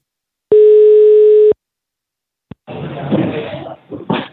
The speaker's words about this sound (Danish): så skal vi ikke bare øh, se, om han tager telefonen? Call him.